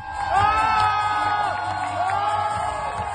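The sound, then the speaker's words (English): A crowd at the Berlin marathon cheers the Ethiopian athlete Tigist Assefa as she sets the women's marathon world record, loud and steady, with whoops, high shouts and yells layered over a dense roar that holds throughout the few seconds. “That is the sound of crowds cheering the Ethiopian athlete Tigist Assefa, and you can actually watch that clip on the Abbott World Marathon Majors social media”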